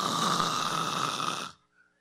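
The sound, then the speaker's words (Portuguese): A person imitates a snore with one long, loud, rasping snort, lasting about a second and a half before cutting off into near silence. “Meu irmão, a pessoa ronca.”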